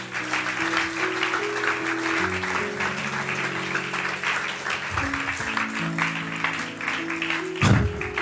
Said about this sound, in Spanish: Y démosle un aplauso a Jesucristo.